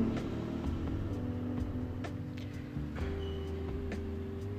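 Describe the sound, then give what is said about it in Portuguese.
Steady traffic noise: engines rumbling and humming as cars and motorcycles pass, with pitch shifting as they accelerate, no voices over it. “Hoje, obviamente, teremos alguns ruídos de motos e carros passando, porque, né?”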